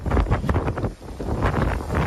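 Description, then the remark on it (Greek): Powerful wind of Storm Ciarán in Europe, with gusts reaching 170 km/h, roars and buffets the microphone in loud, continuous gusts, with a brief lull midway before the blustering surges back. No voices are heard. “Τεράστια κύματα υψώνονται και οι ρηπές του ανέμου αγγίζουν τα 170 χιλιόμετρα την ώρα.”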